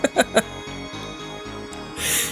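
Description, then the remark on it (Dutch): A cat bumps its head against a table: three quick, soft knocks, followed by a low rhythmic rumble and a brief breathy rush at the end. “En hopelijk gaan onze kat inderdaad niet tegen te veel dingen stoten. Oh, zoals oh, dat, hij nu aan het doen is.”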